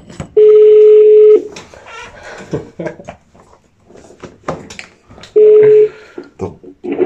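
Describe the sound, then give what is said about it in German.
A phone call rings out over a speakerphone: two long, steady ringback tones several seconds apart, loud and slightly buzzy, with clicks and rustling noises in between. “Erzähl mir mal das und, und dann anrufen.”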